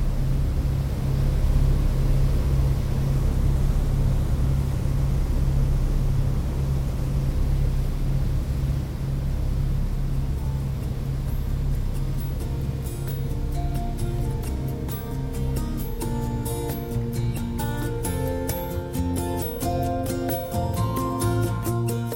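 A steady, loud engine drone rumbles on board a ferry crossing from Strucklahnungshörn to Pellworm, deep and continuous; midway through, the tone shifts and rattling, clattering sounds join the hum. No one speaks.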